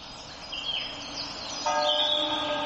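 Church bells begin ringing partway through, their sustained resonant tones filling the space, while birds chirp briefly before and during the peal against a quiet outdoor background.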